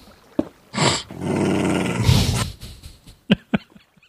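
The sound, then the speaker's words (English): A dog growls in one sustained, rough snarl lasting almost two seconds, fairly loud, followed by a few short sharp clicks or yips near the end. “now he's a reason to growl.”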